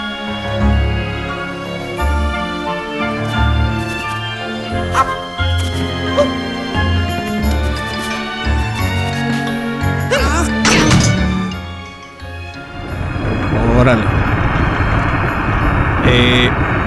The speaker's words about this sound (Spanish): Pero la musicalización está increíble. Me voy a callar un momento para que ustedes la escuchen.